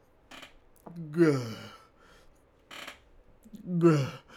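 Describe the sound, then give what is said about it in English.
A voice imitates labored breathing: two strained, groaning breaths with falling pitch, separated by short breathy hisses and gulping catches, fairly loud, with no spoken words. “like you know the labored breathing and like the swallowing.”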